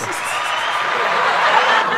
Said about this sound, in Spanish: Esto es un público grande. ¿Todavía tienes un público así de grande? aplauda, ah, aplauda ahí, exacto, duro.